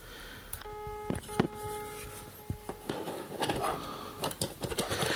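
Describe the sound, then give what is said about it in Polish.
A rapid run of electronic telephone dialing tones from pressing the redial key, paired pitched beeps following each other quickly, mixed with clicks and handling noise, with no one speaking. “Mm, a jak telefon dzwoni Klawisza redial w takiej szybkości dzwoni.”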